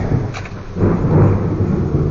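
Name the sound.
rainstorm with thunder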